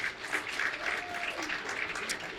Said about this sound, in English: So let's give him a round of applause for that.